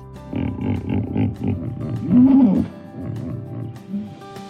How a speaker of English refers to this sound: Hey Google, what does a hippo sound like? This is a hippopotamus.